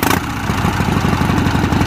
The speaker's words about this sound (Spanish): Harley, ¿no? Sí. Una moto.